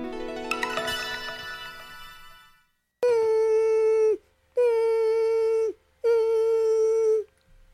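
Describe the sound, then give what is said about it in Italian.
A whimpering, crying sound effect of mosquitoes: three long, loud whining tones with slightly wavering pitch, separated by short gaps, after a dense swell of buzzy tonal noise. No one speaks. “Ma cos'è? Sono le zanzare che piangono, non passano brisa.”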